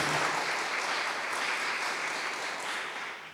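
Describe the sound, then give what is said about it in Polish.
An audience at a Literacki Sopot book event claps steadily to welcome the book's authors, Dyba and Adam Lach, a dense crackle of many hands that holds fairly even throughout and fades slightly at the end, with no voices on top. “E, jej autorami i autorkami jest e, Dyba i Adam Lachowie, których przywitajmy wielkimi brawami.”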